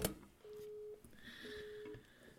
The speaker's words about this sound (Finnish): Jaha, numero varattu. Yrittääkö hän soittaa meille päin?